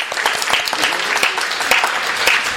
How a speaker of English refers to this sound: So please give a round of applause to our um, authors.